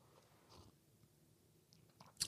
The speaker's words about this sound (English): I'm taking a sip of coffee.